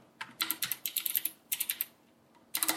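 Rapid typing on a small computer keyboard with a gradually customised key layout, bursts of crisp clicking keystrokes separated by short pauses, with no voices.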